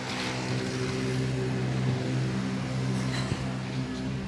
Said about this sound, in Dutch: Scooter. Pizza bezorger.